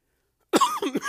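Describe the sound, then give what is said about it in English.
A sudden burst of harsh coughing breaks the silence, two or three rough hacks in quick succession, loud and raspy, with no other sounds around them. “and here come the coughs.”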